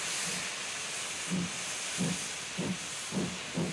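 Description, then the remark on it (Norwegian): A steam train to Fredrikstad hisses steadily as Norwegian prime minister Einar Gerhardsen boards it on the morning of 29 February 1948; rhythmic chuffs of the locomotive come in, spacing closer together as it starts pulling away. No voices, just the continuous steam noise and the quickening puffs. “Formannen i Arbeiderpartiet og Norges statsminister Einar Gerhardsen setter seg på toget til Fredrikstad for å forberede talen senere på dagen.”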